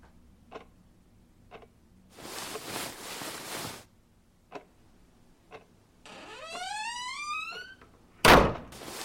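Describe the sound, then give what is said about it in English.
A bedroom door creaks slowly on its hinges, then shuts with a single solid thud. A wall clock ticks steadily, and there is a brief rushing noise earlier on. “Standing by the now closed bedroom door was Rebecca.”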